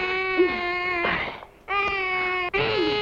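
A baby wails loudly in three long, high-pitched cries separated by brief catches of breath, the pitch wobbling and bending at the start of each cry. No one else speaks.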